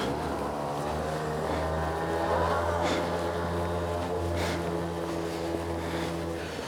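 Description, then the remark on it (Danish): Small scooter engines, ridden by young people, drone steadily and rev, their buzzing whine rising in brief surges as they ride past, with no voices. “Kommer alle de unge mennesker, jeg kan huske det dengang jeg selv var, var så ung der køre rundt på scooteren 3-4 stykker på en gang uden hjelm.”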